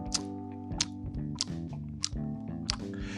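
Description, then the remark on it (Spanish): A voice mimics the loud, noisy chewing of someone eating during a quiet film: about five wet smacking bursts at a steady, unhurried rhythm, over a continuous hummed tone. “no puedes masticar, o sea, no puedes masticar bien, es como si estuvieras, no sé, masticando un chicle, como si estuvieras comiéndote una pinche bolsa, no sé por qué harías ese ruido”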